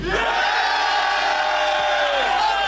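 An audience roars with sustained cheering and shouting as a crowd vote for a contestant in a battle, loud and continuous for the whole stretch, with many voices blending into one dense wall of noise.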